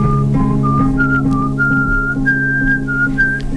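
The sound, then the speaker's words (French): A person whistles a short, wandering tune of several sustained notes that step up gradually in pitch, clear, over a steady low droning hum in the background. “Les sifflets en boucle.”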